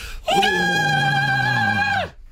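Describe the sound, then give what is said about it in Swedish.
One loud Gothenburg power metal scream, held on a steady high pitch with slight vibrato for nearly two seconds before sliding down and cutting off. No talking. “vi avslutar alltid varje avsnitt i rockhyllan med ett tvättäkta, i det här fallet, Göteborgs power metal-skrik”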